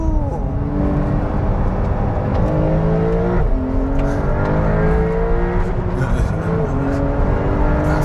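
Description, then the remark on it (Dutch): A loud sports car with an all-new 3.8-litre engine, an enlarged 911 Carrera S unit, revs hard and climbs in pitch, hitting the rev limiter, dropping briefly at several gear changes before surging again, steady and continuous throughout with no voices. “heb ik het net te laat hoor, de toerengrenzer.”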